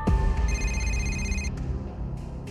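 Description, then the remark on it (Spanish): A telephone rings once in a living room, a bright electronic trill lasting about a second over a low, steady background rumble, with no one speaking. “Cuando estaban sentados en la sala discutiendo sobre los pasos a seguir, sonó el teléfono.”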